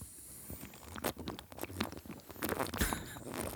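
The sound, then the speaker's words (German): Someone bites into another small piece of food to taste and judge it, then chews, making a series of irregular, crisp crunching and smacking sounds, moderately loud, with no talking. “Ich nehme nochmal ein Stückchen, um das nochmal beurteilen zu können.”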